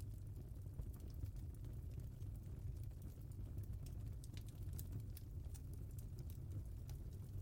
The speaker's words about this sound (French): Observez la luminosité de ce feu qui crépite.